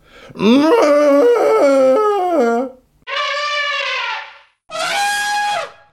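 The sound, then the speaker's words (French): A man's voice imitates an elephant trumpeting: three loud blasts, first a long wavering one, then two shorter bright calls after brief pauses, with no talking in between. “Oui je vais vous mettre le jingle pour faire plaisir, et je vais même barrir.”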